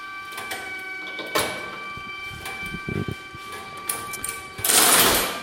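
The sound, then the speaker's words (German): An electromechanical telephone exchange connecting a call from line 55363 to line 55360: switching gear clatters and clicks in irregular bursts over a steady high electrical hum, ending with a loud rushing, whirring burst of relay noise as the ringing signal goes out. “Und jetzt geht der Ruf raus, man hört es also praktisch auf der anderen Seite”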